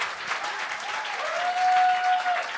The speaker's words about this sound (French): On peut applaudir